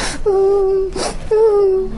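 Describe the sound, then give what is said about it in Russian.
A voice mimics the way some people cry, a wailing, sobbing cry: two long, sustained moaning wails, each preceded by a sharp breathy gasp, fairly loud with no words spoken. “Есть такие люди, которые так плачут, mm-hmm.”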